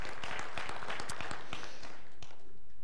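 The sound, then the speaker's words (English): A short round of applause from a church audience, thanking people for taking care of a family: dense, irregular clapping from several hands for about two seconds, then thinning out and fading away. No one speaks. “A little hand, of, round of applause for you for doing that.”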